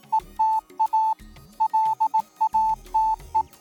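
Morse code beeps spelling ETA LATE, a Royal Air Force signal for late arrival: a steady, clear single-pitched tone keyed in a quick pattern of short dots and longer dashes with brief gaps, sounding alone.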